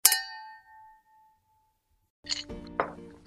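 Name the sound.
glasses clinking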